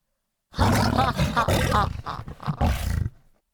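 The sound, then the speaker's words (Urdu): A lion roars loudly for a few seconds, a rough, rumbling bellow that surges in several pulses, almost like laughter, before fading out. No one speaks. “اس بات پر شیر ایک بار پھر ہنس پڑا”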